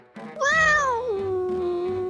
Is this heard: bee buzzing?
no